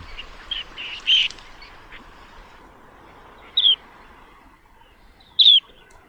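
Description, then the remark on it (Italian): Curlew sandpiper calls in a lagoon: a few short, high chirruping notes spaced a couple of seconds apart, the first among fainter twitters, all over a steady low background rumble of open wetland. “qua ne abbiamo uno che si è perso, non trova parcheggio, sentiamo com'è il verso del Piovanello.”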